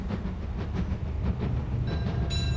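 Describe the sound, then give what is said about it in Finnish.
A Paris metro train rumbles along the rails with a steady low roar and rhythmic clatter, and a thin high-pitched whine rises near the end. No voices. “1920-luvun lopun Pariisin saavuttuaan Paavolainen kirjoitti tohkeissaan usean sivun verran Pariisin metrosta ja sen ihmeellisyydestä.”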